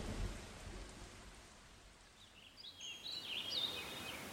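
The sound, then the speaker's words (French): Steady rain hisses throughout while a deep thunder rumble rolls at the start and fades, as a thunderstorm with wind and lightning breaks over a tournament around 4 p.m., the sky darkening. Faint, high bird chirps flicker over the downpour toward the end. No one speaks. “Je tape décontracté, et quand à 16 heures je commence à piquer un peu du nez, le ciel s'obscurcit. La pluie le vent, mais surtout la foudre.”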